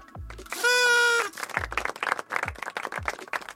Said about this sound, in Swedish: En fanfar för fanfarernas djur, elefanten.